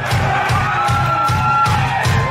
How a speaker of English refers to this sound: I'm glad to see everybody clapping. And by everybody, I mean one fifth of the crowd, but that's all right.